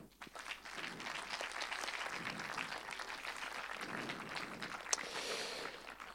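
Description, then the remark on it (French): An audience claps steadily for several seconds for the director of a film, a dense, crackling wash of many hands that holds at a fairly even loudness and thins out slightly toward the end, with no one speaking. “Et Rodolphe Diamant, du coup, le réalisateur du film, qui mérite, je crois, encore une fois, vos applaudissements.”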